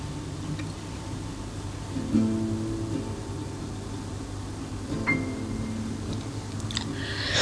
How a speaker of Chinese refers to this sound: 昨天的雨今天下过了，现在房间里面只有电风扇的声音。